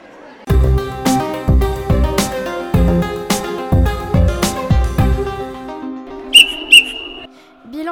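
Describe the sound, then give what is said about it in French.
A referee's final whistle ends a football match near the end: two short sharp blasts followed by one longer shrill toot, coming right after a stretch of rhythmic, percussive music with strong beats. “10-2 au coup de sifflet final, un match surprenant avec des très bons joueurs.”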